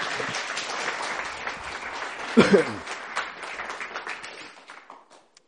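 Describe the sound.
An audience claps steadily in a dense, sustained round of applause that gradually thins and fades out, with a nearby cough and a brief murmur from a voice partway through.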